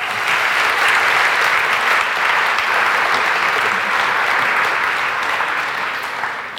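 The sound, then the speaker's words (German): A crowd applauds steadily for a speaker who was on stage, a dense wash of clapping hands that holds at a loud, even level for several seconds before easing slightly toward the end. No one speaks over it. “Einen Applaus für ihn, bitte.”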